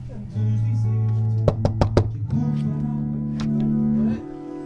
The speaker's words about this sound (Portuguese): Bom, aqui definitivamente está alguém a ensaiar. Vou bater à porta e vamos ver quem está nesta sala de ensaios.